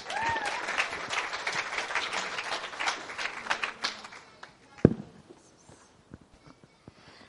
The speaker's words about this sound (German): mit einem ganz herzlichen Applaus willkommen.